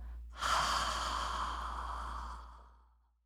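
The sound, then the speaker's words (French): A single long, breathy exhale made with a sound after a long, slow, deep inhale through the nose during a breathing exercise, like an audible sigh, drawn out for about two seconds before trailing off into quiet. Soft, with no talking. “Alors en cet instant même, Prenez une longue, lente et profonde inspiration par le nez et expirez avec le son”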